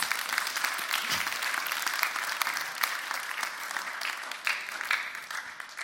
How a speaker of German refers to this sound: Und bei Gott gibt es nämlich Leben. Wie gut ist das? Klatscht mal dafür. Ganz im Ernst.